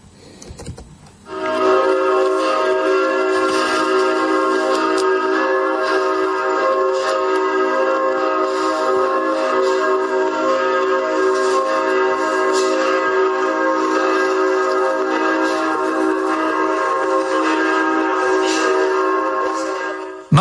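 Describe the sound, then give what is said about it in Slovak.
Loud bells peal continuously for about twenty seconds, their overlapping strikes blending into a dense, ringing wash of tones. No one speaks. “No a skúsim to teda predeliť niečím takýmto, že toto je teda povolebná situácia, kde by sme mali byť na pozore, pretože zvony hlasno bijú.”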